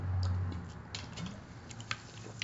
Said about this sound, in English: You know, but take a sip of uh, soda.